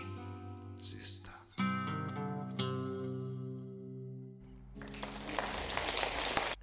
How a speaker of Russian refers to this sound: Как приятно, когда произведение музыкальное заканчивается аплодисментами.